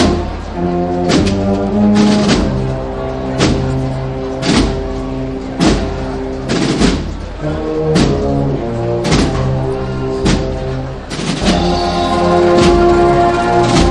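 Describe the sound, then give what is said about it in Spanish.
A processional band in a brotherhood procession with nazarenos plays a slow march by maestro Cebrián at the confluence of Calle Bernabé Soriano and Plaza San Francisco, with sustained brass chords and regular heavy drum beats marking the steady rhythm. The music is loud and continuous, with no voices. “Mientras seguimos escuchando los sones de la marcha del maestro Cebrián.”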